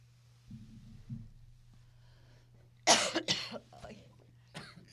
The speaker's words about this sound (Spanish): La tos no ayuda.